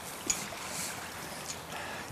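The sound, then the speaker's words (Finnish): Sea water laps gently and steadily at a sheltered spot, a soft continuous wash with small swells and splashes, no voices present. “Meri liplattaa tässä lepposasti”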